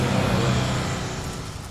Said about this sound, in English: That bus. totally looks like a Canadian flag. Here comes the school bus.